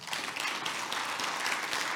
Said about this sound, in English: So if you're grateful for all those that God has put here as volunteers, just a quick round of applause.